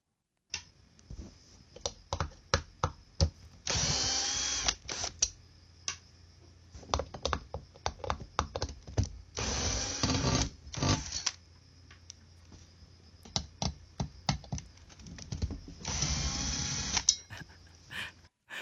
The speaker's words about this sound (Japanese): パイプ椅子を解体した音。